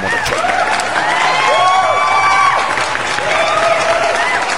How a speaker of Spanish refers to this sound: Y la neta, mis pinches perros respetos y otro grandioso aplauso para el